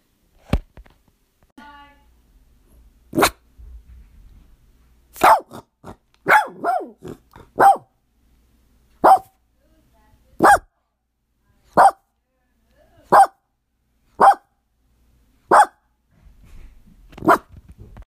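A dog barks loudly at a knock on the door, a quick burst of several barks followed by single barks repeated at a steady, even pace, with a few sharp thuds early on.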